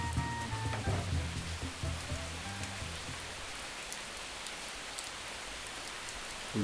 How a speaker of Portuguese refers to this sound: dia inteiro chovendo. Lembra disso? Isso aí é, é o que conduz a narrativa amazônida, né? Exatamente. Eu adoro isso aqui. Sou louco, apaixonado por isso. Essa chuva aqui é muito curioso que a gente não sabe de onde vem tanta água, né, cara?